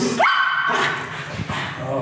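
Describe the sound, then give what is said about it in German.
A small German hunting terrier lets out a single sharp, high-pitched yelping bark, followed by a few softer rough barking sounds, with people talking faintly in the background. “Und das ist der Jimmy, das ist ein deutscher Jagdherr.”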